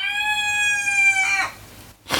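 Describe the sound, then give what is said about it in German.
A single long, strained crow from a rooster holds steady for over a second, then trails off, followed by a short, harsh squawk. No one speaks. “Die Hühner sind auch noch da.”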